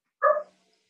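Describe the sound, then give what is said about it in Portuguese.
One short, sharp bark from a dog that has just had a paw amputated rings out, then silence follows; no one is speaking. “Não, eu tenho que sair porque eu tenho que dar remédio pro cachorro aqui, cara.”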